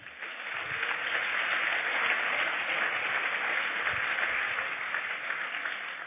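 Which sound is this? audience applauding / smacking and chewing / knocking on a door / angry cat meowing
audience applauding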